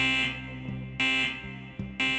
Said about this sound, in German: Für ihn fährt alles mit dem Alarm mitten in der Nacht an. Er bestätigt den Alarm und die Polizei sagt ihm, es gäbe tatsächlich ein Feuer.